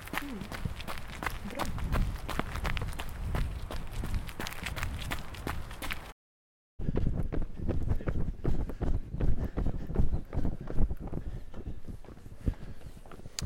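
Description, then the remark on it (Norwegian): Quick running footsteps patter across an outdoor stadium, with scattered voices and light wind as people, including crossfitters and joggers, exercise. Brief silence mid-way, then more steady footfalls and general bustle of many people moving about. “kommer vi ned på stadion, og så er det kanskje 100 mennesker som er med ulike aktiviteter nede”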